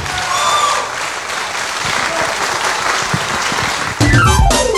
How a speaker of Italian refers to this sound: Enzo, grazie mille. un applauso un po' più forte.